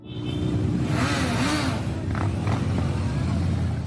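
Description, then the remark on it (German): A loud, continuous roar of many motorcycle engines passing by, some of about 15,000 motorcyclists (police estimate) riding in Ostfriesland on a Saturday; overlapping revs and whooshes rise and fall in a steady dense stream with no pauses. “Das sind natürlich Motorräder und davon nicht wenige.”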